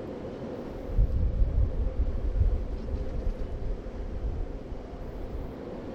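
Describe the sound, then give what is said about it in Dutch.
Strong wind roars and buffets steadily for the whole stretch on a high mountaintop, a deep rumbling rush with gusts swelling near the start, loud, with no voices. “Eh, waait hij wel die ja, dit is één hoogste berg.”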